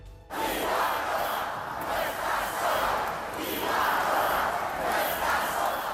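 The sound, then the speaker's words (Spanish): Thousands of people chanting "Ibarrola no está sola" in the Plaza Consistorial in Pamplona at a UPN event backed by PP and Vox against a motion of censure, a dense roar of voices rising and falling in rhythmic swells, loud and sustained throughout with no single voice standing out. “Miles de personas gritaban Ibarrola no está sola en la plaza consistorial, acto de UPN apoyado por PP y Vox contra la moción de censura que devolverá a EH Bildu a la alcaldía.”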